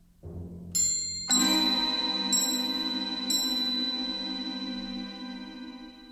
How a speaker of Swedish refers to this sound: det här ledmotivet innefattar bland annat slag på ett metalliskt städ och klockspel bland mycket annat.